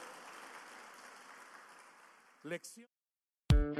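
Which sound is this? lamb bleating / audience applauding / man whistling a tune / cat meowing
audience applauding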